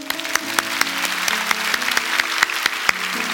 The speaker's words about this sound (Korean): 오늘 한 영혼이 천하보다 귀하다고 했는데 오늘 주님을 영접한 분이 참 많이 계십니다. 우리 그분들을 축하하면서 하나님께 영광의 박수 드리겠습니다.